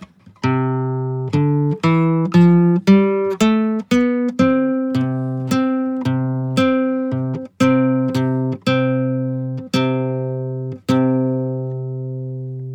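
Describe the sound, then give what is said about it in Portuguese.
Musical notes sounded together an octave apart, blending into one bright, sustained tone. About a dozen struck notes follow in a steady sequence, each ringing briefly before the next, with no talking. “Os dois sons juntos, eles soam como se fosse uma coisa só.”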